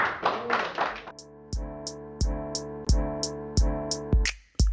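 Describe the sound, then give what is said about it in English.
A short burst of hand clapping in praise to the Lord gives way to steady, evenly spaced claps on each beat, ringing out over sustained musical chords. “Let's get the Lord a hand clap of praise.”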